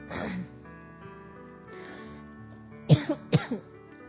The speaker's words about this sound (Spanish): y les pido perdón por el ataque de tos que me dio. no sé por qué. Ay, en plena visualización, pero bueno.